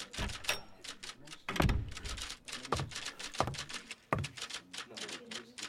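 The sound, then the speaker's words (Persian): Several typewriters clatter busily as staff work in the Scientific American magazine office on a sunny but cold December day in 1877, a dense, irregular stream of sharp clacks with occasional heavier thunks, steady, over a faint murmur of background voices. “صدای ماشین های تایپ قطع شد و سرها به سمت درب ورودی چرخید.”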